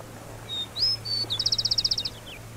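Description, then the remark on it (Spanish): A rufous-collared sparrow sings clearly amid urban noise: a few sweet whistled notes, then a quick even trill of about ten rapid chirps, ending with a falling note over a low steady hum. “Mi trino se ve interrumpido por los ruidos del paisaje urbano y se me dificulta traer a una copetona.”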